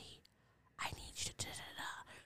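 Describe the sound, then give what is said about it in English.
After a brief quiet moment, someone whispers a few breathy, unvoiced words into a phone, the hushed phrases coming in short bursts with tiny pauses between them. “I'd be like, I can't hear you, but I wouldn't hang up because I'm assuming if you're whispering, then that must be for a reason.”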